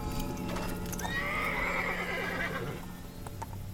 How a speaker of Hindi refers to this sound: तभी उस सन्नाटे में घोड़ों की आवाज़ से वो सब चौंक गए उन सब ने देखा कि एक तांगे वाला बड़ी फुर्ती से उन सब के पास आकर रुक गया